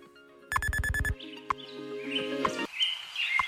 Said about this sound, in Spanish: Y a esta hora amanece oficialmente en Madrid. ¿eh? Eso nos lo indican nuestros pajaritos, los pajaritos de Radio Hora.